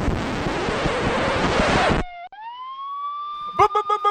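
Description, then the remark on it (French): A police siren wails up in a single rising tone, clear, right after a burst of harsh noise cuts off; someone starts talking as it ends. “C'est les sirènes de la police qui veulent chercher ton cadavre, mec.”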